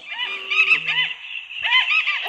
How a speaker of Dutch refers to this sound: Ja, dit ik hoor een eh, eh, vogel in de achtergrond. Ja, ik, ik hoor verschillende soorten vogels zelfs.